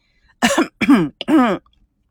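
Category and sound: human body sound, fake coughing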